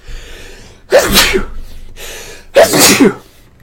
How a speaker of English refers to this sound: I gotta sneeze.